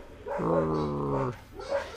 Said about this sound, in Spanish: tiene por aquí seis perros formando parte de su manada Seis perros y ocho gatos.